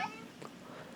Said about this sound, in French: Excusez-moi, c'est mon chat.